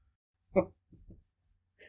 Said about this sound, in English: trying to trying to record here, and all you're doing is burping and slapping your belly like Kamala.